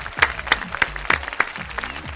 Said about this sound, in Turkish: alkışlıyoruz